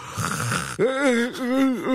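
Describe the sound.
A person fakes a yawn, imitating a bored man at a concert: a long, breathy intake of air followed by a drawn-out, voiced groaning sigh whose pitch wavers and dips, fairly loud and alone.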